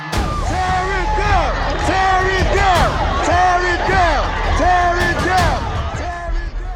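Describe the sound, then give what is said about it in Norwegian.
A protest crowd of about 5,000 people gathered around an 18-metre statue of an old general and slaveholder in Virginia chants "tear it down" in unison, repeating the short phrase in a steady rhythm, with scattered shouts and yells rising over the loud collective voices. “Riv den ned, riv den ned, roper de.”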